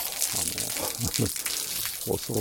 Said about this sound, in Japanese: 細い水の線がですね、1本、2本流れてるという、まあそんな可愛らしい滝ではあるんですが、一応、不動の滝という滝があります。